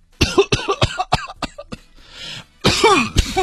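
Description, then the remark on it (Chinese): A rapid string of six or seven sharp, dry coughs from a person with a 38-degree fever, followed by a brief raspy breath and then a louder, harsher, drawn-out coughing fit. No one speaks. “你还有咳嗽呀？”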